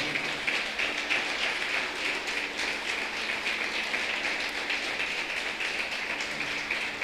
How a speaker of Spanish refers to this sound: ¿Cuántos dan gloria a Dios? Dar un aplauso bien grande al Señor.